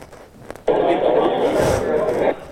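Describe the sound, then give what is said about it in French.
A paper-crumpling texture synthesized with a wavelet model: a dense, crackling rustle that starts abruptly, holds steady at a fairly loud level for under two seconds, then cuts off, with no voices. “Ça c'est un papier, ça c'est le papier gaussien, à nouveau, et le papier par ondelette.”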